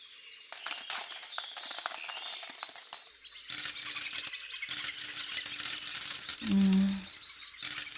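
Silver coins clink and jingle continuously for several seconds, a bright metallic rattle that pauses briefly and resumes, with a short low hollow tone near the end and no voices.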